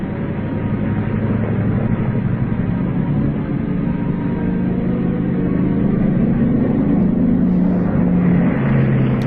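The propeller engines of a B-29 bomber on a 1947 mission carrying the XS-1 drone steadily and loudly throughout, a thick low rumble with a constant pulsing hum and no voices.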